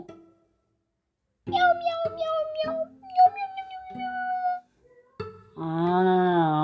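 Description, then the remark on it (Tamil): A child's voice imitates a cat's meowing, several drawn-out meows in quick succession, then a longer, wavering meow after a brief pause, fairly loud. “சரி பூனை சத்தமே கேட்கல எனக்கு பூனை எப்படி கத்தும்”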